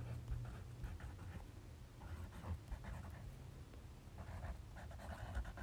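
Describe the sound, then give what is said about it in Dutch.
Scratchy pen strokes on a page as someone writes the words "Denk groter" come in short irregular bursts with brief pauses between them, over a steady low rumble. No one speaks. “Denk groter, ga ik erbij schrijven.”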